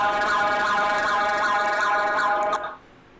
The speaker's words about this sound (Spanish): Pinche puta alarma, cabrón. Parece que están desvalijando el pinche carro.